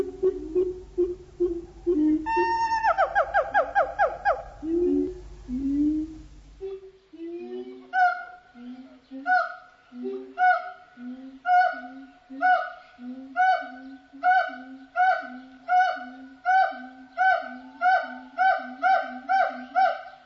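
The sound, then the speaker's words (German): Loud, echoing siamang gibbon calls: a burst of rising hoots and booming notes, then a long, steady run of rhythmic, repeated whooping barks, clear with no talking. “Die größten und schwersten unter den asiatischen Gibbon-Formen sind die Siamangs.”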